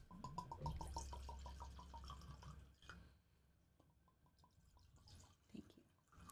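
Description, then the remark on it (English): Straight bourbon whiskey from Kentucky (Ruddle's Mill) glugs steadily from a bottle into a glass, a quick run of bubbling gulps that slows, pauses, then resumes with a few softer glugs, with no talking. “That's totally a specific pour.”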